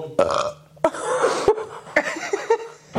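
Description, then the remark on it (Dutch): A string of loud, croaking burps, several bursts following one another with short gaps over a few seconds, with no talking. “Ik denk dat die boeren zijn”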